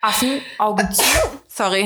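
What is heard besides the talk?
sneeze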